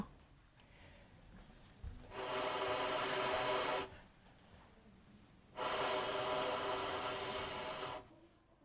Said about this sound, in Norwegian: Det er noe veldig mystisk og rart med tubaen min. Noe som aldri har skjedd før. Hva har skjedd? Jeg får ikke noe lyd ut av den. Tubaen har bare sluttet å funke. Men det kan vel ikke stemme? Går det an? Ja, bare hør nå.